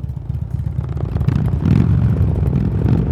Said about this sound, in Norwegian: Jeg våkna av en dyp buldring som fikk vindusrutene til å klirre.